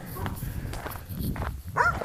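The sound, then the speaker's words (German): A dog barks somewhere in the background, a few short yaps with a sharper burst near the end, heard over low rumbling noise. “Ähm, ja, tut mir leid für den Hund gerade im Hintergrund.”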